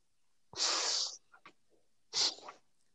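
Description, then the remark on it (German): Two loud, wet sniffs through a runny nose, each a harsh rush of air, separated by a pause with a few faint snuffles between them, with no talking. “Kannst du ja. mal die, ähm, das aufhören und irgendwie Nase putzen gehen, weil ich versuche mich hier zu konzentrieren.”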